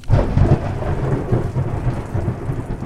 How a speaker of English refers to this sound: There was a clap of thunder.